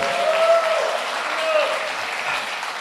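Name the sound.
audience applause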